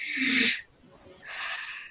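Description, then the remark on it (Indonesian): A voice imitates the labored breathing of a COVID patient: two strained, breathy gasps, a harsh rasping inhale followed after a brief pause by another long, hissing breath, loud and without words. “Karena nafasnya COVID itu, kalau orang nafas COVID itu kayak...”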